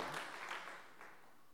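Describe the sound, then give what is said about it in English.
An audience gives a hand clap of praise for Jesus, a dense, sustained burst of applause filling the room, steady and moderately loud before tapering slightly toward the end. “If you don't want to sell out Jesus today and you want to sell out to Jesus, why don't we just give him a hand clap of praise today?”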